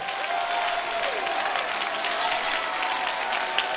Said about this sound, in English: Now can you clap? Now can you clap? Now can you shout? Woo!